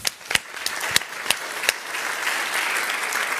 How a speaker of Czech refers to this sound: A teraz, prosím vás, zatleskáme všetkým, kdo pracují v praktické službe.